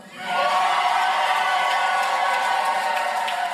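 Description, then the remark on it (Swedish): Supporters of Petteri Orpo and his National Coalition Party cheer loudly and continuously at an election night party in Finland after he announces a big win in Sunday's election, a dense wash of shouting and whooping voices that swells in after a brief quiet start and holds steady throughout. “Ja, här sa han, vet ni vad, det blev en stor seger och anhängarna jublade på valvakan.”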